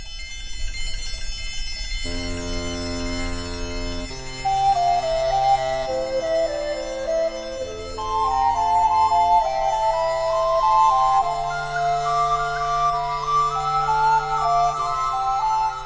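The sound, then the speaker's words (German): A baroque organ plays a slow chorale in sustained chords while the Zimbelstern's small bells tinkle continuously above it in a bright, high, shimmering ring. “Krummhörner etwa, der Basspommer oder der Zimbelstern, ein glöckchenhaftes Effektregister in älteren Barockorgeln.”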